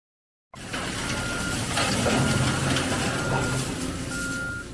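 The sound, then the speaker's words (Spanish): Repeated high reversing beeps from heavy trucks at an earthquake rubble site in Turkey sound over a steady rumble of diesel engines, with clattering machinery and a busy outdoor worksite din all around. “Es el sonido de los escombros de un desastre, de un terremoto, un terremoto que ha provocado miles de muertos en Turquía y en Siria hay decenas de miles de heridos.”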